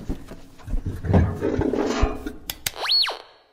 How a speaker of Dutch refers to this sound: Voor eh, aan de andere kant van het glas allemaal weer van die grote loodzware deuren open gaan. En gaat nu een deur open en inderdaad,